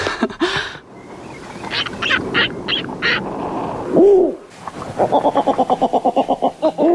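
Owl calls ring out with no one talking: scattered short calls, one drawn-out swooping hoot, then a fast, steady run of repeated hooting notes, clear.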